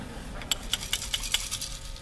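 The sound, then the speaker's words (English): A quick run of five or six bright, glassy clinks, spaced about a fifth of a second apart, of ice cubes knocking inside a big glass of sweet tea, over a low, steady background hum. “He could hear the ice cubes kind of clinking around.”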